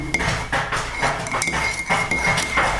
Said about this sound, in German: Mein Kater spielt sich schon wieder verrückt. Blackie, lass doch mal die Tür in Ruhe, Mensch. Was hat die Tür dir getan? Mach doch mal die Tür ran und dann kratzt da.